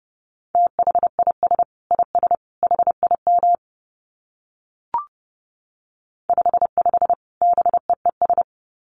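Morse code beeps sent at 30 words per minute on a single steady mid-pitched tone, in two quick bursts of short and long elements separated by a pause with a faint click, and no voices.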